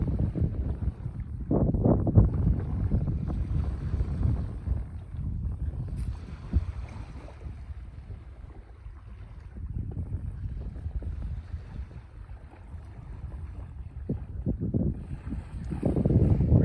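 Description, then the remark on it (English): Soft ocean water laps and ripples in a steady, low wash, swelling gently now and then, with a faint breezy rumble underneath and no voices. “Listen to the beautiful ripples of the ocean and allow them to just fade away.”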